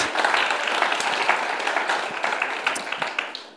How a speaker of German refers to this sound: Und komm, wir geben euch mal einen ganz großen Applaus.